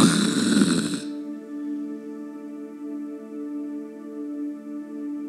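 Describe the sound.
A voice imitates loud snoring: a harsh, rasping snort lasting about a second, then a long, steady droning hum that carries on alone, fairly loud.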